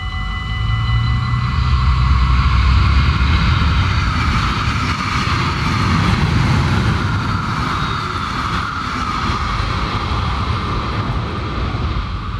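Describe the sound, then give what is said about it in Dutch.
A train rumbles past on the Kortrijk–Brussels railway line that cuts through the village of Munkswalm, loud, with a steady roar and high metallic whining tones held throughout, and no one talking. “Munkswam wordt doormidden gesneden door de spoorlijn Kortrijk-Brussel.”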